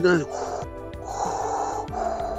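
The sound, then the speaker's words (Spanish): A person imitates breathing through a firefighter's self-contained breathing apparatus worn inside a sealed protective suit, making a few drawn-out, hissing, raspy breaths in a steady rhythm, fairly loud, with no words spoken. “Todo el rato se escucha eso, es tu propia respiración.”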